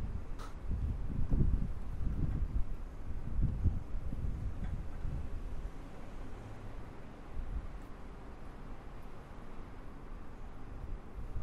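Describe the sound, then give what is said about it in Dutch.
Quiet, empty train platform ambience at Utrecht Centraal station in Utrecht while waiting for a train: a low steady rumble with soft airy hiss, a few heavier gusts of noise early on, then settling into a calm, hollow hush with no voices. “Hier zit ik op de trein te wachten om even te luisteren.”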